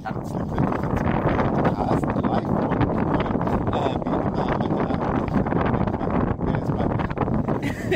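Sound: wind rushing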